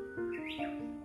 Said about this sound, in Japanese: 今の多分ウグイスの声とかも聞こえてると思う